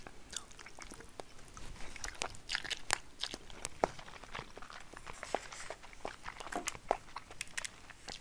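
Someone chewing food while eating a lunch-break meal, with a quiet, irregular stream of crisp crunches, clicks and wet smacks. No one speaks.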